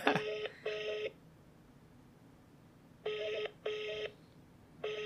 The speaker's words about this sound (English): What is this? International don't pick up your phone day or what?